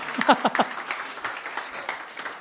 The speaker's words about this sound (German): Bin auch gespannt, bin auch gespannt, ob ich so einen netten Applaus kriege wie die vier vor mir. Was jetzt schon?